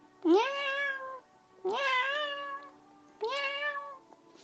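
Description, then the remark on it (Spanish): A cat hiding under a bed meows three times in a row, each call a drawn-out, wavering cry of about a second with short pauses between, clear with no talking. “el gato Carpop se escondió debajo de la cama y maulló”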